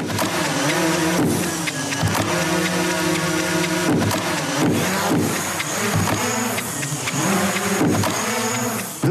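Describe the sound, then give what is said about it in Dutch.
A drone's rotors whir loudly and steadily, their buzzing pitch rising and falling in repeated sweeps as the drone is flown at varying heights, with a rough, rattling edge and no voices. “En door met de hoogte van de drone te spelen, kan je er nog meer mee.”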